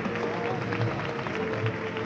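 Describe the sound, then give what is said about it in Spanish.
Steady, dense applause from a large crowd in a town square, a continuous wash of clapping with a faint murmur of voices mixed in, as the paso de palio of the Virgen de las Lágrimas comes out of the main door of the parroquia de la Merced while the Marcha Real plays. “suena ya la marcha real, saliendo ya el paso de palio de la Virgen de las Lágrimas por la puerta principal de la parroquia de la Merced, aplausos en la plaza,”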